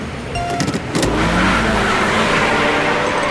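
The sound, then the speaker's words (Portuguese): A car engine revs up loudly, a few sharp throttle bursts at first, then settling into a sustained, roaring drone that fills the rest of the moment, as a race is about to start. “Escolha seu carro. Pise no acelerador e cuidado com a corredora de rosa, porque será dada largada para a nossa aventura.”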